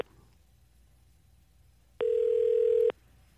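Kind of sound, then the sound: signal or alarm, telephone dial tone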